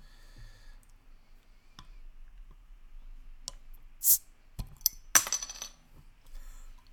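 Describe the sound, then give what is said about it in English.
A drink bottle being opened: a few small clicks and metallic clinks, a brief hissing burst, then a sharp crack of the cap, fairly quiet, with no talking. “It might sound like bad for now, but I have to kind of open this”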